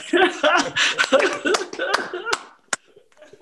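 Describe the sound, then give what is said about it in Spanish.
Audience applause at a tribute by rock musicians, a dense patter of clapping mixed with cheering and laughing voices for about two and a half seconds, then fading to a few scattered claps. “Aplausos.”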